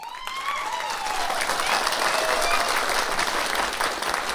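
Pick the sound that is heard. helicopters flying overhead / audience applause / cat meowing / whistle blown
audience applause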